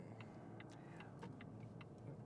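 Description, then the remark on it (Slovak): A steady low hum from a warmed-up car engine fills a quiet car interior while driving on rough roads, with faint rapid ticking clicks scattered over the top and no voices. “Motor sa trochu skultivoval, lebo sa zohrial.”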